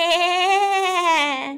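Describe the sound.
A single sustained, nasal bleat imitated by a human voice, voicing sheep rehearsing a song in a story, steady and mid-pitched with a slight waver, held for over a second and tapering at the end.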